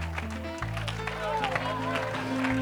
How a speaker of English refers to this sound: That's why we say he's in my hands and in my feet because by clapping my hands, I'm partaking of an eschatological prophecy that shows that I will be victorious. Oh, clap your hands, all ye people and shout unto God with a voice of triumph.